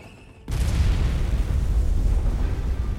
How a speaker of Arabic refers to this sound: فاجأ الانفجار الجميع ومع ذلك لم يحقق الانفجار شيئا